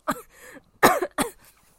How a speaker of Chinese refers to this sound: 直接咳嗽。